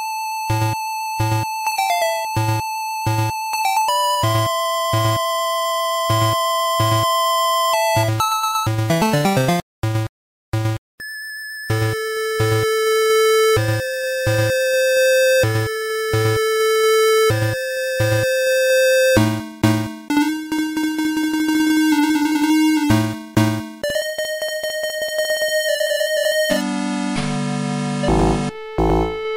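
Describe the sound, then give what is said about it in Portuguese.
Chiptune-style retro video game music from the game Rastan: bright synthesized square-wave melodies over a steady, pulsing bass and percussive beats, with quick arpeggio sweeps and a brief dropout near the middle. No voices. “Que é uma música de um jogo maravilhoso que chama Rastan.”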